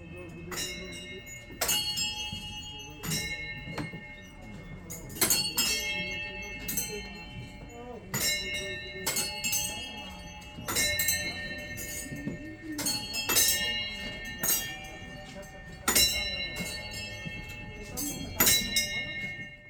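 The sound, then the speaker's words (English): Prayer wheels being turned at the memorial chorten in Thimphu, Bhutan, each striking a small bell that rings out bright and lingering, chiming about every second or two at an uneven rhythm over a low background hum and faint murmur. “I wanted to share more sounds from Bhutan, and what you just heard are prayer wheels being turned at the memorial chorten in Thimphu, which is the capital of Bhutan.”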